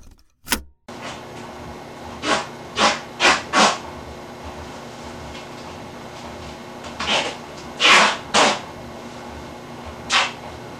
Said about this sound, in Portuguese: não se vê nada além de uma parede e o que se ouve é o barulho de fita sendo descolada do rolo e o farfalhar de plástico.